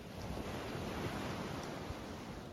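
A steady, soft wash of ocean surf rolls over sand, a continuous hissing rush with no distinct breaks, heard alone without any voices.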